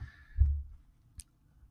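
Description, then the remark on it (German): A brief rustle and clatter of slips tumbling inside a drawing ball as a new book is drawn, with a dull thump early on and a sharp click near the end, with no talking. “Du hörst es schon. Die Kugel raschelt.”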